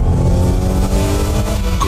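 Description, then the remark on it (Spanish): The engine of a Mazda CX-60 plug-in hybrid SUV revs loudly and steadily for a couple of seconds, a deep, rumbling growl with rising harmonic tones, continuous with no voices. “Prepárate para sentir la potencia de sus motores”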